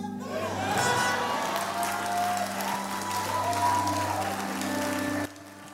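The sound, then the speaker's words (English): An audience claps steadily and densely for several seconds, a loud sustained wash of applause over a low droning hum, with faint crowd voices mixed in before it cuts off abruptly. “The Lord visit those who are clapping and bless.”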